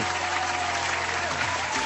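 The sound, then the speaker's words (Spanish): A sustained burst of audience applause during program number 70, with dense and steady clapping from many hands filling the whole stretch at a constant, moderately loud level. “Los aplausos, por favor.”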